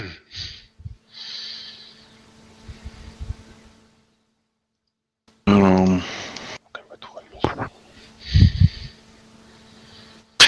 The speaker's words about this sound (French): On entend chuchoter, Captain.